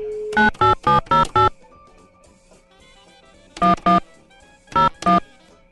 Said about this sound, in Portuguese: Alguém tá ouvindo esse alarme de fundo? O que tá acontecendo também, meu? Porra, tá pegando fogo o prédio, será, meu?